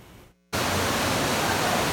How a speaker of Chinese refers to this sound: 民众直击，滚滚泥水瞬间涌入纽约地铁站。停靠在月台的车厢，大雨如瀑布般倾泻而下